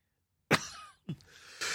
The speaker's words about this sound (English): I choked on taking a drink. Uh, that was not a dry cough. I do not have the coronavirus,